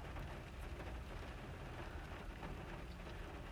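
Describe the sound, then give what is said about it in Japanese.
Steady rain pours down in a continuous, even hiss with a dense patter of drops on a surface, unchanging throughout and fairly soft overall, with no voices. “なんか私めちゃくちゃ雨女なんですよ多分わかんないけどなんか物事を楽しみにするとその日に雨が降るんですよだから多分今日は楽しみだったんだと思う”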